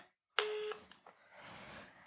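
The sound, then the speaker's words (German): A single electronic telephone tone sounds loudly for about a third of a second, followed by quieter clicks and a steady line hiss, heard through a speakerphone while calling about a delayed food order. “Okay, dann hier ist die Telefonnummer. Wir rufen da jetzt Anruf. Lautsprecher.”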